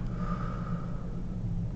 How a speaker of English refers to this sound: Right, you can close your eyes take a deep breath in and deep breath out.